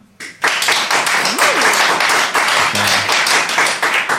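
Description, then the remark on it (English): An audience breaks into applause after a brief quiet start, voting that the Matrix world would win the battle; dense overlapping claps sustained and loud throughout, with a few faint voices and a whistle-like tone rising briefly within it. “if you think that the Matrix world would be uh, the winner of this war. Applaud now.”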